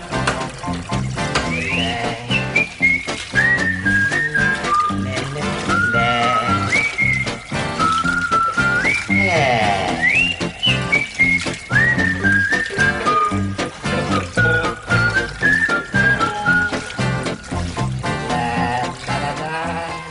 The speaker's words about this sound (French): Il nous a fait un enregistrement dans sa baignoire à la fin, en tout cas.